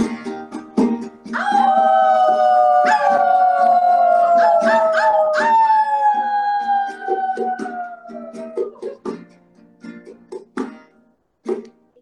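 A wolf lets out a long, loud howl that swells and slowly slides downward in pitch, with a second voice overlapping, followed by a few short yips and scattered rustling.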